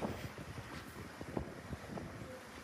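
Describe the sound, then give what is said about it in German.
Steady wind rushes and buffets the microphone aboard a sailing boat, with irregular splashing bursts of water and spray over a constant rough roar. No one speaks. “Sturm, Chaos, dann wieder Stille, diese spritzende Gischt. Ich durfte letztes Jahr mal mit, mit segeln und das war echt stark.”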